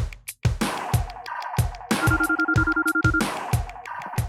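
A steady telephone ringback tone sounds once for about a second, heard over a rhythmic background beat with regular thumping pulses, as a reporter phones a young driller who is out at work in Sundsvall.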